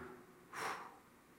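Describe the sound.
A voice imitates a dying person's last exhale: one short, breathy whoosh of air, rising and fading within a fraction of a second with no talking over it.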